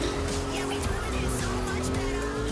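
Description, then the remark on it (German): A steady, high-revving engine drone with a sustained tonal whine from a racing car in a video game driving fast at 300 km/h, continuous and fairly loud with a faint murmur of talk underneath. “300 km/h mit diesem Auto.”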